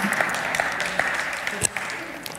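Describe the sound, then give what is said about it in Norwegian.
An audience bursts into steady applause, a dense patter of many hands clapping at a fairly loud, even level, with a few sharper individual claps standing out from the wash. “Det er jo nå dere skal gi meg en applaus.”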